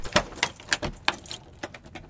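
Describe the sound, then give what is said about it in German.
The parish pastor opens the door of the small village church of Pödelwitz, Saxony, on a hill among old deciduous trees. Keys jingle and a series of sharp metallic clicks and clunks ring out, irregular and fairly quiet, with no voices. “öffnet die Tür zur Dorfkirche.”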